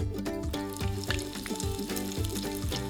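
One chopped onion sizzles steadily in about two tablespoons of hot oil in a pot, a continuous crackle and hiss with small pops, and no one speaking.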